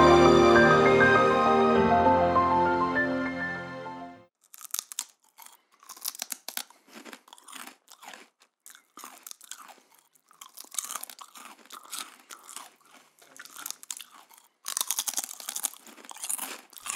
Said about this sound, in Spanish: Como supongo que podéis escuchar, tenemos aquí con nosotros un grupo de masticadores profesionales probando todo tipo de materias.